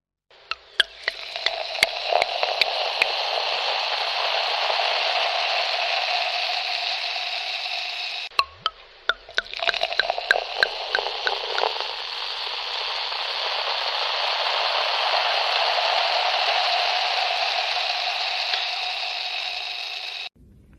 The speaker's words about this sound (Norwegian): høre boblene? Boble. I en skjenking i et glass. Akkurat. Om vi kan høre, høre forskjell, forskjell, på størrelsen på boblene?